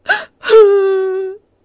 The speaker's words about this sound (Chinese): 狼嚎啕大哭起来。